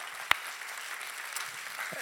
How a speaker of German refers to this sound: Hey, vielleicht können wir uns gegenseitig nochmal einen riesen Applaus geben und uns willkommen heißen in diesem neuen Jahr.